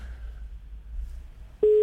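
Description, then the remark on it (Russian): A telephone line tone starts abruptly after a low hum and faint background noise: a loud, steady, mid-pitched beep that continues to the end. “Так, выводим гудки.”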